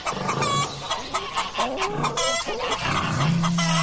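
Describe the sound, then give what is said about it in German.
Chickens cluck and squawk in a busy farmyard chorus on the farm of a holiday village in the Großarltal, Salzburg, near the Hohe Tauern National Park, several birds calling in overlapping, irregular bursts, with a harsher drawn-out call near the end. “Also bei uns am Feriendorf leben acht Pferde, zwei Ziegen, ein paar Hasen, Hühner, also alle Tiere kann man bei uns füttern.”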